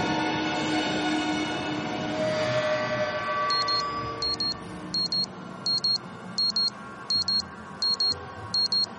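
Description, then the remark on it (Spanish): An alarm clock on a bedside table beeps in a steady, repeating pattern of quick double beeps, high-pitched and fairly loud, starting a few seconds in over a low background hiss and continuing to the end, as a woman wakes, takes it and switches it off. “Se estira y coge su despertador de la mesilla. Lo apaga y se incorpora un poco mareada.”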